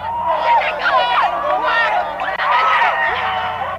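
A crowd of Senegalese fans cheering in the streets of Paris as Senegal's football victory over France is confirmed, with many overlapping raised voices shouting and whooping at once, loud and continuous for the whole stretch with no single voice standing out.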